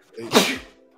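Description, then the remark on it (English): A single loud sneeze bursts out sharply with a brief breathy intake before it, then fades quickly into quiet. “Bless you, my brother.”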